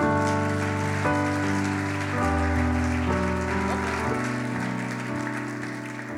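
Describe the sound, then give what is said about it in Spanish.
An audience claps steadily for several seconds, applauding Jesus during a church service: a dense, continuous patter of applause layered over sustained, shifting keyboard chords, with no voices standing out. “Dele un aplauso a Jesús por su vida.”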